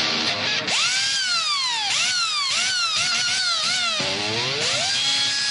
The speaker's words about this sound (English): It's a Makita 6012. It's from the late 80s. It was one of the first uh, cordless power drills.